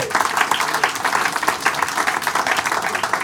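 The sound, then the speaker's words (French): An audience at a literary event with Éditions Prises de parole, the Salon du livre de l'Outaouais and the Troquet bursts into steady applause for the performers, a dense, even wash of many hands clapping at once that holds its loudness throughout without pause. “Applaudissez-les là.”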